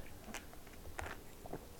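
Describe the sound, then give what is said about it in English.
Quiet sipping of hot Starbucks drinks in a taste test: a few short, wet slurps and mouth sounds spaced irregularly over a faint background, with no talking. “We're gonna do a taste test. Cheers. Okay, cheers. First sip.”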